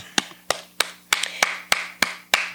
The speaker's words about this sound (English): And I want you to give yourself a clap.